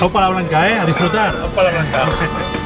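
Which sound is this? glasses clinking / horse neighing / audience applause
glasses clinking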